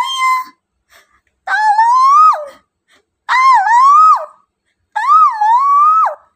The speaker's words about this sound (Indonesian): Teriak Roro kembali. Teman-teman Roro mendengar teriakannya dan menemukan Roro di dasar lubang.